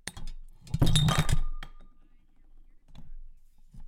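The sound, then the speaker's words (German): A drinking glass tips over, a burst of clattering knocks followed by a clear ringing tone that fades within a second, with faint rustling afterward. “Unser Glas ist umgefallen.”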